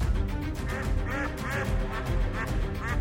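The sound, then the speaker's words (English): Several ducks, a hotel's guard ducks, quack repeatedly in a busy, overlapping chorus, with rapid nasal calls over a steady low rumble of background noise. “Terrified of facing the wrath of this hotel's duck guards”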